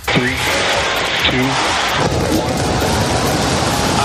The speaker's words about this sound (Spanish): Así ha sonado el despegue de la nave Starship en Boca Chica, Texas, en el que es el mayor cohete de la historia, tanto el más grande como el más potente. Ha sido lanzado por la empresa SpaceX de Elon Musk